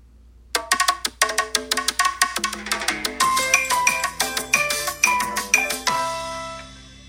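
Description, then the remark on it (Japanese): A bouncy, playful pop jingle made of bright percussive hits and bell-like tones in a quick, jaunty rhythm, building busier before ringing out; no voices. It is one of the stock sound effects built into the Radiotalk app. “あの、なんかちょっとおちゃらけた感じのね、このポップなの”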